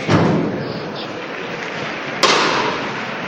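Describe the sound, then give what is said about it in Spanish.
Two sharp metallic knocks from the llamador (knocker) on the throne of a Jesus procession signal the bearers to lower the throne, one at the start and another a couple of seconds later, ringing out over a steady murmur of a large street crowd. “Escuchamos el llamador que indica a los promitentes de, de Jesús que bajen el trono.”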